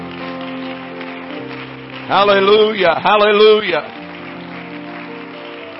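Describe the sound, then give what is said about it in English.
An audience's steady, dense clapping fills the space throughout, a crowd of hands applauding together as a hand clap of praise to the Lord, while a voice rises briefly over it, calling out in the middle. “Let's give the Lord a hand clap of praise today.”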